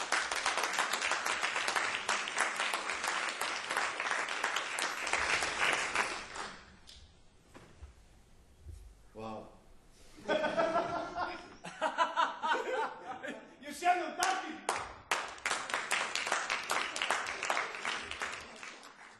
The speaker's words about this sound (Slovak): Dame i gospodo, molim vas, molim vas jedan veliki aplauz